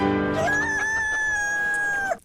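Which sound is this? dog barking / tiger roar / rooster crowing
rooster crowing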